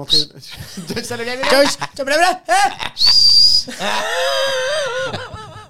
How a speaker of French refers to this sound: J'adore siffler